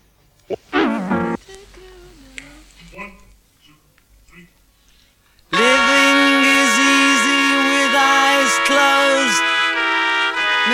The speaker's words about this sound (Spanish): Entonces, … hace este arreglo para trompetas y chelos, que suena así.